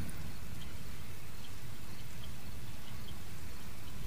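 Steady rain falls over a swamp, a dense continuous patter with a low rumble beneath and faint chirps of birds or insects scattered through it.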